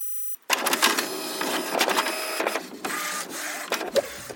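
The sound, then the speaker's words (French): A money printing press runs steadily, a loud mechanical whir with rhythmic clacks and brief pauses in the feed, no voices at all. “Il n'aura donc fallu qu'un an pour remettre cette politique en cause et réenclencher à nouveau la planche à billets.”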